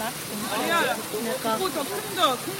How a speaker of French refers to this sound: Ça, c'est la première cascade, donc c'est Pyongpong